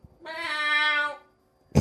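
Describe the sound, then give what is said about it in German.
A voice imitates a tomcat's meow: one drawn-out, wailing call lasting about a second, fairly loud, followed after a short pause by a brief, sharp burst of sound. “dann bin ich natürlich immer in meinem Modus, hey, Body People, hey, und ich äh, ratter dann da meinen Text rein und dann der Kater zwischendurch immer so”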